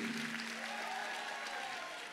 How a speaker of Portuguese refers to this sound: Vamos receber esse servo de Deus aí com um forte aplauso.